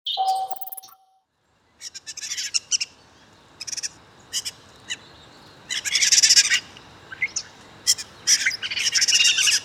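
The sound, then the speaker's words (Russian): A common starling, recorded in New York, sings a busy, varied song of whistles, clicks and rattling chatter in repeated bursts, clear, with a brief pure whistle near the start and a short pause after it. “Вы слышите звуки обыкновенного скворца, записанные там, где скворцы никогда не водились, а именно в Нью-Йорке.”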